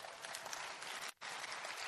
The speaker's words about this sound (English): According to Pastor Jamal. Clap for Pastor Jamal.